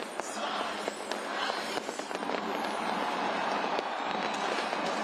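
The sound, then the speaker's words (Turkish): Fireworks crackle and pop in scattered bursts at a New Year celebration welcoming 2023, over a dense, steady roar of crowd noise from people filling city squares, with several sharper bangs standing out from the continuous wash of sound. “Havai fişek ve lazer gösterileri izleyenleri büyüledi.”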